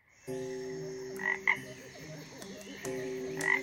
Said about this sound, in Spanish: Una noche, el sapo cururú se encontraba cantando en el lago cuando vio en el cielo una enorme estrella.